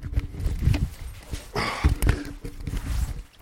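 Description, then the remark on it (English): A coat being taken off: a few seconds of fabric rustling and swishing, with soft thumps and shuffles as the garment is pulled free, and no one speaking. “This is the sound of me taking my coat off.”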